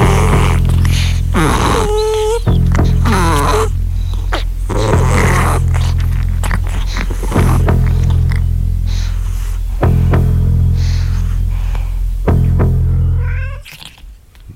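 A female pet cat makes strange noises, a series of loud warbling yowls and chirping cries in irregular bursts over a steady low rumbling drone that cuts off abruptly at the end.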